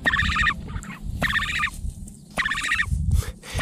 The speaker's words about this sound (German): So klingt ja der Waldrapp. Also ähm, das ist ein Ibisvogel, schwarze Federn, sieht so ein bisschen aufgeplustert aus, hat einen ganz langen, äh, roten Schnabel.